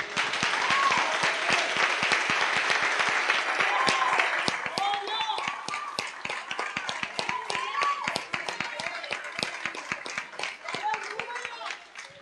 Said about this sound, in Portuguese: E eu quero desde já honrar a Deus e pedir a ajuda de vocês a isso, para juntamente aplaudirmos ao Senhor pela vida de vocês.